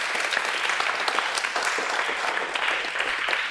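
Steady, dense applause from an audience, a continuous crackle of many hands clapping at even loudness for a few seconds with no voices over it.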